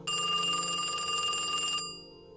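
A loud, shrill telephone bell rings in one continuous rapid metallic burst lasting nearly two seconds, then stops abruptly with a short fading ring.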